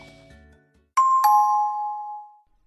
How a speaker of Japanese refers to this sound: 次回のチャイム